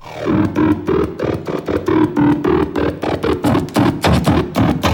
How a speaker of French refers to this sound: les mecs qui jouent ça, ils le font avec des douchettes à code barre